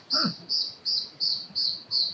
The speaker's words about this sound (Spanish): estate atento durante el día, siéntate en meditación y trata de estar atento de ese pájaro que acaba de cantar.